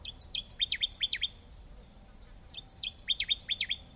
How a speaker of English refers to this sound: The best way to track down a Connecticut warbler is by listening for its loud and distinctive song.